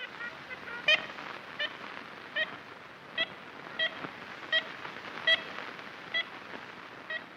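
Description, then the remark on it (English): Ivory-billed woodpecker calls recorded in the 1930s in the Singer Tract, an 80,000-acre hardwood forest in north central Louisiana: about a dozen short, nasal, horn-like toots repeated at an uneven pace, over a steady hiss of old, noisy recording. “Ivory billed woodpecker, Cornell catalog, cut one.”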